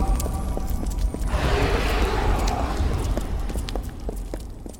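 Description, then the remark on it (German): Several people walk briskly together, their overlapping footsteps tapping in an uneven rhythm, with a brief rustling swell partway through and no talking. “Unsere Schritte waren das einzige Geräusch, das wir hören konnten.”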